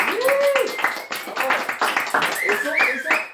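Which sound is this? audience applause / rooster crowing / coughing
audience applause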